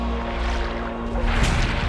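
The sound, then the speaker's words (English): A low steady hum runs throughout, then a burst of splashing water rises in the second half, fairly loud, with no voices. “Water”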